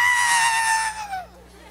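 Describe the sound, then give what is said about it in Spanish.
A voice imitates a scream: one loud, high-pitched cry held for about a second before its pitch sags and it trails off into quiet. “Pero el grito no era por mí, olvídate de eso.”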